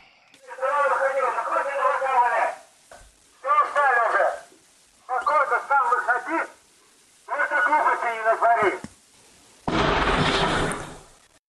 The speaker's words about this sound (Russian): Это был звук светошумовой гранаты, которую спецназовцы взорвали перед тем, как ворваться в дом.